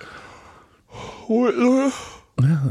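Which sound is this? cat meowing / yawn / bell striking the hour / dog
yawn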